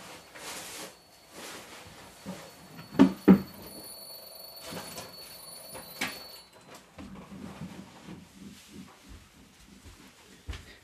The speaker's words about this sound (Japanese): いきなり目覚まし時計が鳴るというハプニングがね、えー、生じましたが